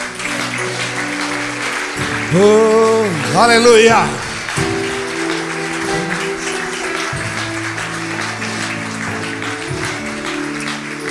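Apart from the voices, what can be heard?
audience applauding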